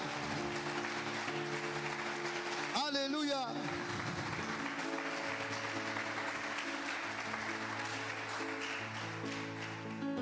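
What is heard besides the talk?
audience applause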